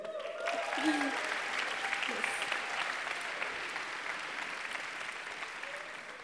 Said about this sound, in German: Und er hat eine Frau und eine Tochter. Die sind beide da übrigens. Genau. Applaus für sie.